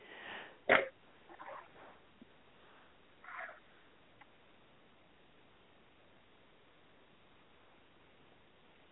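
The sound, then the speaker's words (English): A sharp, forceful cough bursts out, then a couple of softer, raspier coughs follow at uneven intervals over a quiet hiss, with no talking. “I'm just having a coughing fit over here.”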